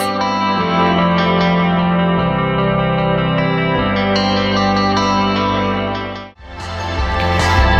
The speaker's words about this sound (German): Weil ich vergessen habe, mich um unsere Abteilung Sing-Song zu kümmern, hören wir heute Lieder, die wir ausgewählt haben.